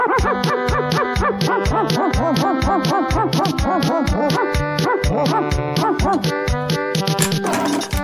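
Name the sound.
dog barking and yipping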